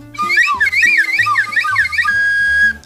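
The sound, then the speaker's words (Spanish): A whistle is blown in a loud, warbling burst of rapidly wavering high pitches for about two seconds, then settles into a steadier held tone before cutting off. “A ver si te gusta más mi ¿eh? pito, venga.”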